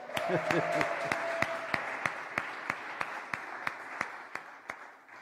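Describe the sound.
An audience applauds in a dense, steady wash of clapping, with sharp individual claps in a regular rhythm. A voice calls out briefly at the start, and the applause gradually thins.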